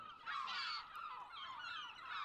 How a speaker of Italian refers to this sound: Sul prato di fronte alla tenda, Teresa e Antonio videro decine, forse un centinaio, di uccelletti bianchi, candidi affusolati, con le estremità delle ali nere. Continuavano a gridare